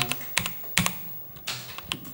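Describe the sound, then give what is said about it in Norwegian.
The cheap Asian-made switches of a B2000 CR (cost-reduced) mechanical keyboard clack as several keys are pressed in an uneven rhythm, each press a sharp click with a brief low thock, no voices present. “Vi må høre på switchene her.”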